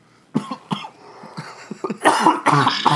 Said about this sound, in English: You've had a heart attack and now, now you just coughed up a lung. coughing your lungs out.